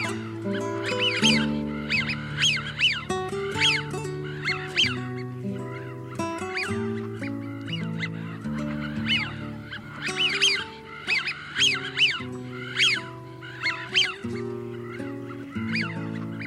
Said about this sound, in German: Das war die Pfeifente.